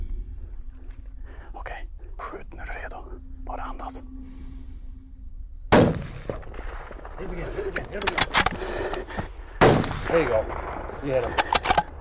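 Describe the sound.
Quiet whispering gives way to a loud rifle shot fired by a hunter at a bear grazing along a forest road, followed by rustling and low talk, then a second sharp shot a few seconds later to bring the bear down, with more murmured voices.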